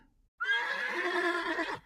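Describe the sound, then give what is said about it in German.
Sleipnir, Odin's magical eight-legged horse, just after being shod, neighs once, a loud whinny lasting over a second with a wavering, quivering pitch that fades at the end. No one speaks. “Sie hatte soeben geholfen, das Pferd Sleipnir zu beschlagen.”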